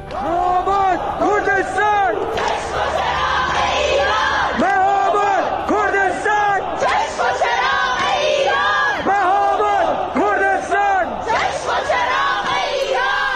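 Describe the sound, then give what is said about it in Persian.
A large crowd chants protest slogans in unison in Shahrak-e Chitgar, Tehran, Iran, loud and rhythmic, voices rising and falling in repeated shouted phrases that fill the space continuously from start to finish. “اینجا هم شهرک چیتگر تهرانه که اینجوری شعار میدن”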